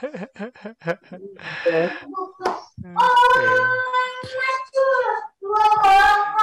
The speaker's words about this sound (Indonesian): Maaf ya mas kalau ada suara-suara itu suara anak ya, saya. Ya nggak apa-apa nggak apa-apa. Nggak apa-apa santai. Back sound ada back sound.